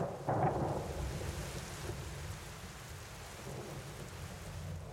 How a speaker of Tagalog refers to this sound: Totoong malakas ang ulan noon. Naririnig ko rin naman mula sa labi.